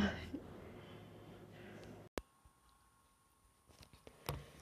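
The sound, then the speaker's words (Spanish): Dogs walking on cardboard sheets upstairs, heard as a couple of sharp thumps and a few light scattered taps, muffled over a low hiss, with no one talking. “si, se escucharon unos ruidos fuertes arriba ya en los últimos segundos, ya fueron, mis perros que ahí andaban caminando.”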